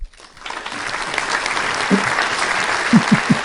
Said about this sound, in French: Mais euh, on je pense qu'on peut leur donner une main d'applaudissement. Ils ont, bien fait ça.